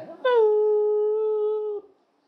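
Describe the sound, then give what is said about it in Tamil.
A person imitates the howl of dogs and jackals at about four in the morning with a single long, steady wail held for about a second and a half before it breaks off abruptly. No other sounds accompany it. “ஒரு நாலு மணி காலையில் இருக்கும்போது நாய் நரி என்ன செய்ய ஆரம்பிச்சிருச்சு மெல்ல”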